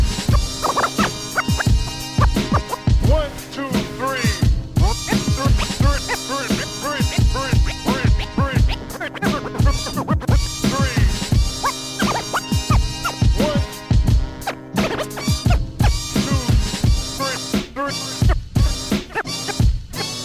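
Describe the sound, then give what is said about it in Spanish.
The intro of a rap demo tape plays loud and steady, a hip-hop instrumental with punchy drum hits on a regular beat, layered melodic samples and scratchy turntable-like textures, no voices. “Esto que escucharon es el intro de la maqueta”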